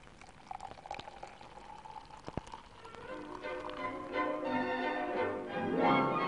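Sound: beer being poured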